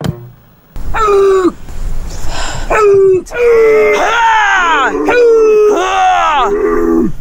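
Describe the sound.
A woman imitates a bear's growl with her signature growl, a run of about six loud, drawn-out vocal calls, each bending up and down in pitch, more howl-like than rough. No words are spoken.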